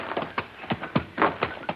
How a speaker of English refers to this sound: I lead your horse.